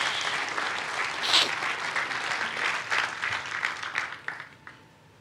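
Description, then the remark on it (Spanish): Loud applause from an audience giving applause to God during a church service. A dense wash of clapping hands holds steady for several seconds before thinning into a few scattered claps and fading out. “¿Le puede dar un fuerte aplauso a Dios?”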